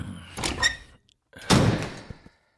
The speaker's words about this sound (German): Er war schon beim vierten oder fünften, als die Tür zum Club sich hinter ihm öffnete.